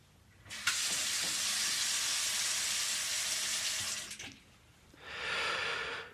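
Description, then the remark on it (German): Tap water runs from a faucet in a steady hiss for several seconds, stops abruptly, then the tap is turned on again for a shorter, softer stream. No one speaks. “Es ist die Leitungswasserfolge, weil ich völlig unmotiviert bin und keine Ahnung habe, womit ich heute die 30 Minuten füllen werde, hören wir jetzt Leitungswasser zu.”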